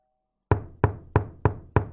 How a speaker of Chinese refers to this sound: 有人轻轻的敲门，他不敢再哭，转头看着门，仔细的听。这次的敲门声非常清楚。